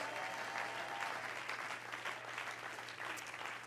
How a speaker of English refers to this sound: Everybody clap your hands to the Lord and shout, Yes!